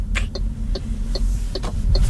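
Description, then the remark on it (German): A car's turn signal ticks with a classic relay-like sound in a steady, even tick-tock rhythm, crisp, over a low rumbling hum from the vehicle, with no voices. “Was mir aber sehr gut gefällt, ist, dass der Blinker klingt so wie früher, wie wenn da ein richtiges Relais drin wäre.”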